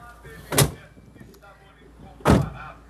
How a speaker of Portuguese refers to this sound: Portas fechando.